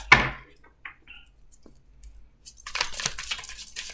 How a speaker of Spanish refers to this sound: Déjenme barajar bien las cartitas porque siento que le falta historia.